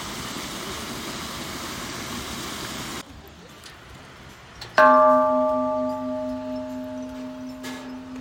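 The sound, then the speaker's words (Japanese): A single lucky bell in the cave at Kame-iwa (turtle rock), on the side opposite a waterfall, is struck once after a stretch of rushing outdoor noise, ringing out loud and clear with bright harmonic tones that slowly fade over several seconds. “幸運の鐘の音はい滝の反対側亀岩の洞窟の鐘を叩きました”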